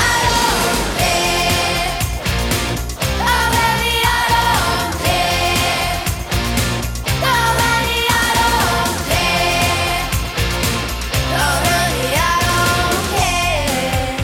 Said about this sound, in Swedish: när bandet … släppte låten “…” och den låter så här.